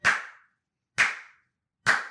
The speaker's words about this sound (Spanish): Aplausos, los doy yo, que estoy aquí solo.